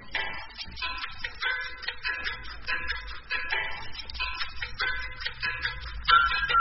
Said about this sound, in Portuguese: Tic-tac.